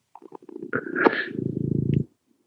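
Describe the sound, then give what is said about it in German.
A domestic cat in a family's home purrs, a low, steady, rhythmic rumble lasting under a second, preceded by soft snuffling and a brief sharper noise. “Das Schnurren hört man gut.”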